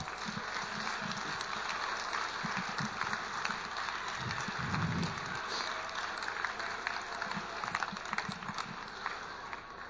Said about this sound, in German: Erstmal ein kräftiger Applaus.